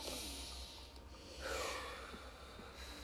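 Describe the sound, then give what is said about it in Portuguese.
A slow, deep breath drawn in through the nose and let fully out through the mouth as a relaxation exercise against stress before speaking, an airy hiss swelling briefly in the middle, fairly soft with no talking. “Um ponto que eu acho importante em situações de estresse para falar, situações de nervosismo, é respirar bem fundo pelo nariz e soltar todo o ar pela boca, pelo menos três vezes.”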